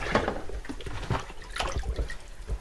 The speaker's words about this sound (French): Alors bah, de même, là, je suis à l'évier, je, je, lave la vaisselle et euh, pour avoir de l'eau, j'ai un circuit euh, très très intéressant, enfin que je trouve très intéressant, c'est que je pour, pour allumer mon robinet, j'ai pas besoin de